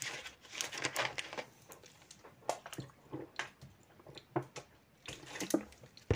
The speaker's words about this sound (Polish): No, po pierwsze, najpierw muszę sobie wziąć łyka wody.